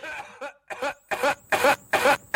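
A loud, close coughing fit: about seven harsh, throaty coughs in quick succession with short silent gaps between them, heard on their own with no music or talking.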